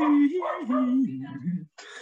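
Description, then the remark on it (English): A dog named Rita gives a run of drawn-out, pitched vocal sounds, almost whining, for about two seconds, ending in a short breathy burst of noise. “can you hear me above my dog, by the way?”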